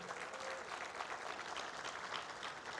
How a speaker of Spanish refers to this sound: Y dale un fuerte aplauso, señores, en esta mañana.